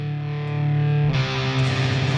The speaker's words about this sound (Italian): Senti cosa sta partendo, senti cosa forse sta partendo fra poco. Parte la tua sigla.